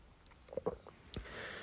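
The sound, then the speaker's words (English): Quiet mouth sounds: a few soft wet clicks and a brief slurp as someone takes a sip of water, followed by a faint swallow and a gentle exhale, with no talking. “Uh, take a sip of water here.”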